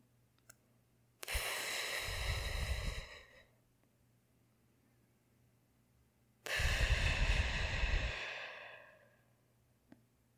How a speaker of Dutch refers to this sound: De zee wordt overspoeld door walvissen, overal waar we kijken vinden. De walvissen liggen meditatief te dobberen en hun ademhaling werkt kalmerend op mij.